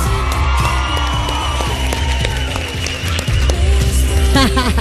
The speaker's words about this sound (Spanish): Atención porque la Riviera se está escuchando poco. ¿Está la gente ahí o no está ahí? A ver esta Riviera. Muy bien. Fuerte el aplauso ahora sí para nuestra artista.